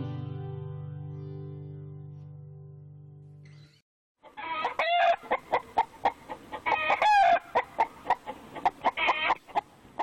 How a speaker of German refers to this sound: begeben wir uns, auch wenn es schwer fällt, in einen Hühnerstall der Massentierhaltung